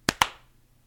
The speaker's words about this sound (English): You're gonna need a clap. Oh, let's clap. You're gonna totally need because I had like oh yeah 47 Ooh. seconds of lead in on this one. Yeah, let's do that. I will need the clap,